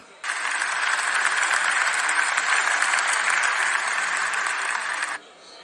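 Audience applause welcoming a guest lecturer on theatre anthropology bursts in abruptly and holds steady as dense, even clapping for about five seconds, then cuts off sharply, leaving a faint hush.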